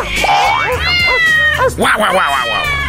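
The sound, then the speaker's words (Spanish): A person imitates a cat, letting out a string of loud, drawn-out meows with rising and falling pitch that run together for about three seconds. “Oye, también cárgate este perro que va caminando desde, hace mucho rato y también échate este gato en la espalda.”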